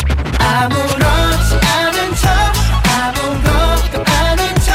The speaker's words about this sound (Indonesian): Nih dengerin deh lagunya.